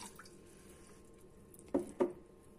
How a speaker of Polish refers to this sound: I teraz przygotowujemy e, pastę z kurkumy. Wlewamy szklankę wody do garnka.